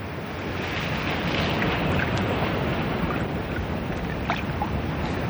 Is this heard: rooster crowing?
no